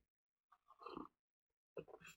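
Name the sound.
sipping coffee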